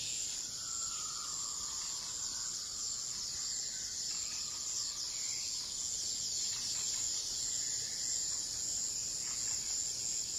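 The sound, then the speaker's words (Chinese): A dense, steady chorus of high-pitched insect chirping runs throughout without a break, with a few faint bird calls now and then underneath, at night under a starry sky; no one speaks. “夜色非常的美，你可以看到漫天的星星，也可以听到各种虫鸣鸟叫。”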